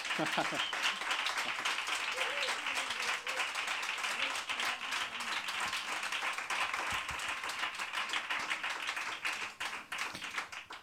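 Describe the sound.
Sustained applause from a crowd, dense steady clapping filling the whole stretch at a fairly loud, even level, with some voices faintly mixed in underneath.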